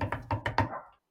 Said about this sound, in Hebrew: מה שאתם שומעים זה קולות של דפיקה על עצים.